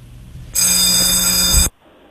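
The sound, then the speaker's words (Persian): A telephone bell rings in one loud, continuous burst lasting a bit over a second, bright and metallic with a dense high-pitched rattle, then cuts off abruptly into quiet. “قرار شد که اگر ما این زنگ و اون صدا در اومد”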